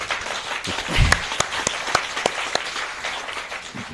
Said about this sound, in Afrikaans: Uh, eh, ja, ek hou van die applous dat ons mekaar moet vind.